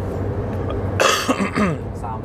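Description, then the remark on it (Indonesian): A single sharp cough bursts out, followed by a brief throaty rasp, with low background hum and faint voice-like sounds around it. “udah batuk nih”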